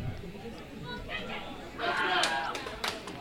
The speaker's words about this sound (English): Oh. People are cheering. Oh. There's a big game on.